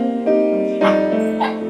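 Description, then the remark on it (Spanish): A white female dog named Yuki gives three short, high yelping barks mixed with whiny whimpering, fairly loud, with a sustained tonal whine carrying between the bursts. “La vida marcha bien, aunque un perro siempre se portará mejor en un sueño frente al mar que en la realidad de un departamento en Santiago.”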